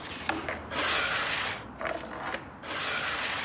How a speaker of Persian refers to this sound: چیکار داری میکنی چرا صندلی ها میچسبونی به هم